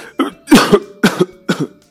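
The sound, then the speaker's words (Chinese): Four loud, hoarse coughs in a steady rhythm, each a harsh, voiced burst, some with a quick double hack, then silence. A human voice acts out a hen coughing loudly into a little fox's ear, with no talking. “一只母鸡声音沙哑的说，然后冲着小狐狸的耳朵大声咳嗽起来。”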